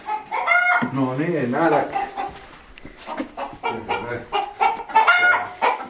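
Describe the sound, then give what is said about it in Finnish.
A flock of chickens clucks busily, with a rooster crowing in a long wavering call; a man speaks briefly, calling to the chicks, over the lively farmyard noise. “Täällä on ihan juhlat käynnissä. Tiput, tiput.”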